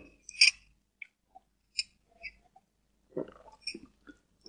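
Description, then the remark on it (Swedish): Someone takes a sip of a drink: a few sharp clinks and light taps, then soft slurping and gulping sounds in quick succession, fairly quiet with no talking. “är det väl att ta en liten slurk till här då.”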